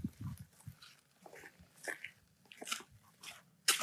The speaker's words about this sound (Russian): Ой, так, да, мы просто, я гуляю с собакой, слушайте, как хорошо приехать на дачу наконец-то из города, особенно еще после изоляции.